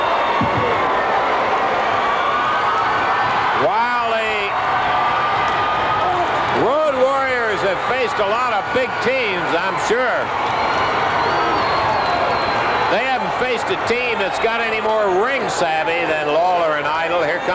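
A large wrestling arena crowd roars steadily after Hawk's drop kick on Lawler, with shouts and whoops rising over a constant wash of cheering and scattered clapping, loud and sustained throughout.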